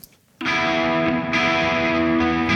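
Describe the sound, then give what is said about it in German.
After a brief quiet moment, a distorted electric guitar chord on the left side rings out loud and sustained, its reverb panned to the right side, keeping the tone full and lingering for a couple of seconds. “Und jetzt müsste der Hall summa summarum, auf der rechten Seite erklingen. Also linke Gita Seite Gitarre, rechte Seite der Hall.”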